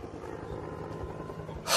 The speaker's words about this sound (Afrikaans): Ek dink die helikopter het 'n paar keer om my gevlieg, maar my nie raak gesien nie omdat ek opgekrul in 'n bal onder 'n boom gelê het.